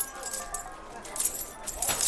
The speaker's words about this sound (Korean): 주머니를 뒤지니 한 움큼의 동전이 나왔다. 좀비의 몸에서 나온 동전이다.